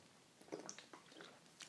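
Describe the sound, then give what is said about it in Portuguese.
A tiny sip of water from a small water bottle picked up with two fingers and tipped: faint wet mouth clicks and a soft swallow, brief and quiet, with no talking. “Peguei com dois dedos, virei, dei um golinho mínimo.”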